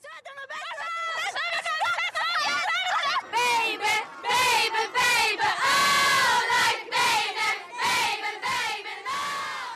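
A loud crowd of pop fans in Norway screaming, a dense wall of high-pitched, overlapping shrieks that surge in waves and never let up for the whole stretch.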